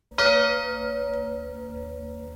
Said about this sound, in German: Und wenn die Kirchturmglocken dann Mitternacht läuten, dann nimmt man. Moment, äh, können wir die Uhr nochmal hören?